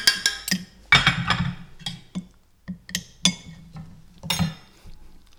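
A spoon clinks and scrapes against a dish several times in quick, uneven bursts, with soft handling noises between the taps and no talking, as a bite of baked filling is scooped onto the spoon.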